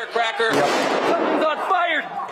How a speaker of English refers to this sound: CNN had a, a clip of one of their own camera units from inside, from behind the police who were lined up uh, just inside the, the doors and the broken windows of CNN, and then a, a flashbang was thrown in from outside.